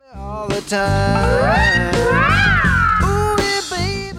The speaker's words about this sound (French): Et pour obtenir ce son, il fait deux slides assez amples à l'aide de son bottleneck, tout en nuançant au pied avec une pédale wah-wah.